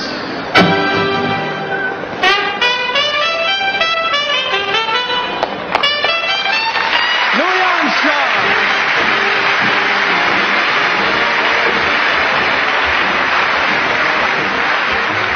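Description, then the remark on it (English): A loud jazz recording with bright horn lines and sharp accents, building into a dense, noisy ensemble wash with crashing cymbals. No one speaks. “How can you describe jazz?”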